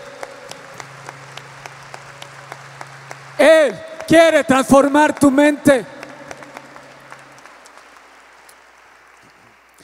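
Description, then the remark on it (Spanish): An audience applauds loudly for the king during a sermon, a steady patter of many hands clapping throughout, with a loud burst of shouting and cheering voices in the middle seconds before the crowd noise settles back under a speaking voice. “Vamos, si, si vas a aplaudir, apláudale fuerte al rey.”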